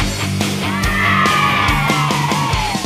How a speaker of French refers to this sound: Ouais mais d'abord euh, du grindcore, faut pas déconner. Ouais, allons, c'est parti.